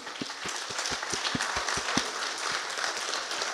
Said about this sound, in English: Can we just take a moment actually do a round of applause just for the moms?